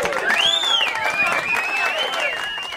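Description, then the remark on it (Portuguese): An audience breaks into steady, loud applause for a guest hailed as the hero of Brazil, lasting the whole moment, with high wavering cheers and whoops rising and falling over the clapping. “O herói do Brasil, uma salva de palmas para o herói do Brasil.”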